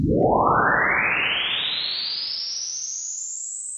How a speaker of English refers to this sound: Let's pretend we want to capture a reverb from our PC in a program called FL Studio. It's just a matter of playing our sweep through this reverb and rendering the result to a new file. This new file then sounds like this.